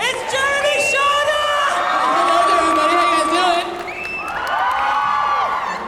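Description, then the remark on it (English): A large audience chants a guest's name and cheers loudly and continuously, many voices overlapping in rising, sustained shouts with a brief dip before swelling again. “Should we start chanting Jeremy and see if he appears?”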